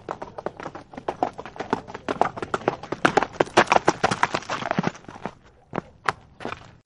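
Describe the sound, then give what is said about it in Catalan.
A horse's hooves clatter in a quick, steady rhythm as a knight approaches a cave, building louder as if drawing near, then thinning out into a few scattered, separate clops near the end. No voices. “Però de cop i volta es va sentir com algú s'acostava a la cova.”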